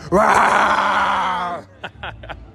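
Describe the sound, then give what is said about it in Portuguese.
A person imitates a lion's roar with one long, loud, throaty growl that holds for about a second and a half before trailing off, followed by a few faint breathy sounds. “Tem que mandar o rugido.”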